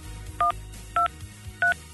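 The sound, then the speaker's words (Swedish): Three short keypad tones beep in an even sequence, each a steady two-pitched electronic chirp from a phone being dialed to call a nominee for Tjejplanet, with a low hum running underneath and no talking. “det betyder inte tur om det inte blir fel en gång innan det blir rätt när vi slår numret”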